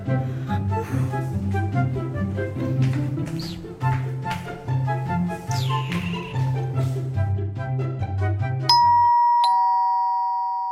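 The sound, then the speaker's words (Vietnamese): A doorbell plays a long, bright electronic chime melody of repeating notes over a steady low accompaniment, then ends on a single sustained ringing tone that slowly fades out. “Mày, mày đặt mà bấm chuông nữa Em không khóa cửa đâu”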